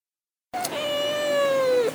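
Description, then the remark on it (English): A single drawn-out meow from Teebs, Miss Pengrino's cat, starts abruptly after a brief silence and holds steady, fairly loud, with a slight falling pitch at the end. “And that was Hot Toddy getting interviewed by Miss Pengrino's cat, Teebs.”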